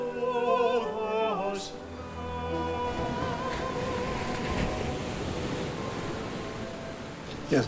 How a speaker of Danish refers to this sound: Jeg sad og tænkte også på lyden af vand, men på bølger.